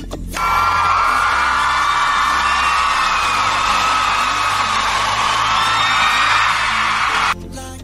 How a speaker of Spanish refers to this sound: Aplausos. Por favor, que se escuche el alarido del público para mi Pinky allá hasta Lima, Perú.